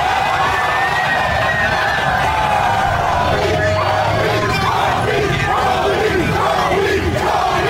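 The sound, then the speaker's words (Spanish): A large crowd of Lakers fans celebrating their championship in the streets, without face masks, roars and chants in loud, continuous waves, with shouted voices rising and falling together over a dense, steady wash of noise. “También habló eh, la, gente de los Lakers se, fue a las calles sin mascarilla ni nada.”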